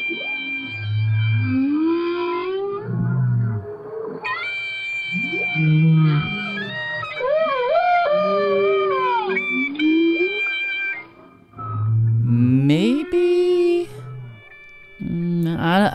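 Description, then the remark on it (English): A whale sings in a continuous series of moaning, rising and falling tones, some stretched into long, steady held notes, with low grunts in between and no voices; it extends its notes into a steady tone after a clarinet had been played. “It just sounds like the whale's still doing whale.”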